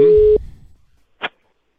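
A telephone ringback tone from an outgoing call placed by the Európa 2 radio morning show to a randomly chosen number sounds once, a short steady electronic beep that cuts off and fades into quiet, followed by a brief muffled click-like burst. No one speaks.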